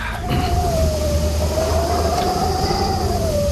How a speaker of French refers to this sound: C'est un vent glacé de Sibérie.